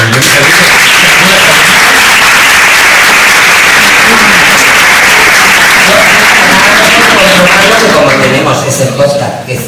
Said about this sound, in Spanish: Yo, un aplauso para la